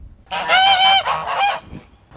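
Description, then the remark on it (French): A loud burst of geese honking, several harsh nasal calls overlapping for about a second and a half before breaking off into quiet, as the geese answer a person calling to them. “Ce qui est assez sympa avec les oies, c'est qu'il n'y a qu'à faire Coucou les filles”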